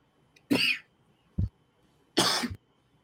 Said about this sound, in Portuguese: Até tossi de emoção.